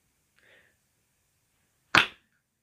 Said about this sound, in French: de faire un clap en même temps. C'est genre en mode euh, clap cinéma.